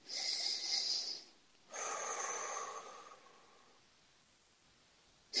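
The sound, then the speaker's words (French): A slow, deep breath taken as a breathing exercise: a long, airy inhale lasting over a second, a brief pause, then an equally long whooshing exhale that trails off. No one speaks. “Alors, on va faire une respiration.”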